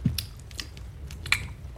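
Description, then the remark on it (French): A voice imitates chewing with a few soft, wet mouth clicks and smacks at an irregular pace, fairly quiet, with no talking, mimicking the character Pete Karabik nonchalantly chewing something. “il mâche un truc euh, il est de manière très non il y a personne au bureau des doléances pour une fois et très nonchalant, il mâche, il mâche un.”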